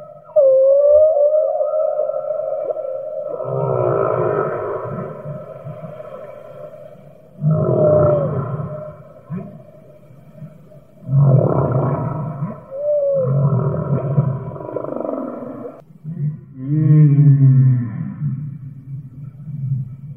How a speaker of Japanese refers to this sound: まあ、低い音が多いですかね。この、うなるようなね、牛さんが水中で、あの、うなってるような感じなんですけど。へそれではここで、ザトウクジラの歌を聴いてみましょう。